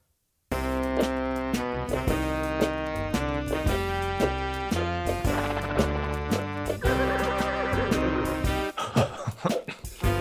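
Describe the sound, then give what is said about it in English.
An instrumental synth track with sustained chords, with a horse's neigh and clip-clopping hooves blended into the music, the hoofbeats becoming sharper and busier in the final seconds. “I love, I love the horses involved there.”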